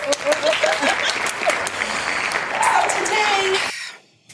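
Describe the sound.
An audience claps steadily in a dense, crackling wash of applause, with a few voices whooping over it, before the clapping cuts off abruptly near the end.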